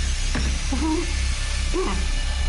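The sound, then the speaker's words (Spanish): An electric drill runs steadily the whole time, a loud, constant motorized buzz, drilling into a helmet, with a couple of short vocal sounds rising briefly over it. “enciende el taladro.”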